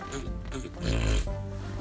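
A person makes a nasal, pig-like snorting sound, a thick rumbling snort that swells in the middle and trails off, with no talking.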